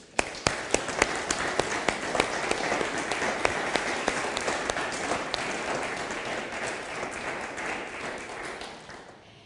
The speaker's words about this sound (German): Es ist super, dass sich so viele einbringen und ich finde, das hat einen großen Applaus verdient.